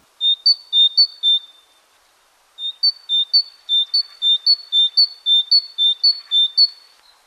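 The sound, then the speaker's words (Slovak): A tit sings a bright, high-pitched two-note phrase repeated rhythmically, a short burst, a brief pause, then a longer run of clear alternating notes, fairly loud with no talking. “A teraz si budete môcť vypočuť to, ako sikorka zneje.”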